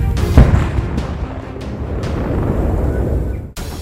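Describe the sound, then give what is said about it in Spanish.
Deep, heavy booms roll through a continuous low rumble, with a few sharp blasts standing out over several seconds, from the eruption of an underwater volcano near Tonga in the Pacific, captured from the coasts of neighbouring Fiji; no voices present. “La vecina Fiji se ensordeció con los impresionantes sonidos que generó la explosión y que fueron captados desde las costas.”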